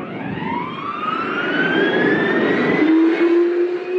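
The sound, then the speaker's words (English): A jeep jet, a jet-powered vehicle, roars away, its engine whine climbing steadily in pitch over a broad rushing rumble, loud throughout, with no voices. “Get the jeep jet!”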